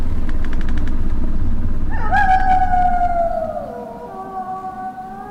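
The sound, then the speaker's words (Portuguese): Strong wind blowing by a dense forest with a constant low roar, joined partway through by a loud, eerie whistling howl that slowly drops in pitch and fades somewhat. No one speaks. “Um vento sopra contra a sua direção, tentando te empurrar de volta para a densa floresta.”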